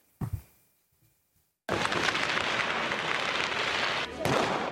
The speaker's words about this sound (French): Des pétards et des fumigènes en pleine rue bruxelloise.